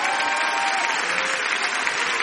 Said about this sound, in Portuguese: Parabéns, parabéns, João. Aplaude João, gente. Aplaude João.